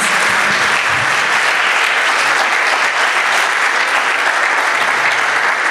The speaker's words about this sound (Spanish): Te lo aseguro, dale un aplauso al Rey, al Señor de Señores.